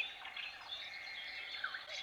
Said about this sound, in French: Et, et bah, les oiseaux, il y en a qu'on entend autour de la maison aussi.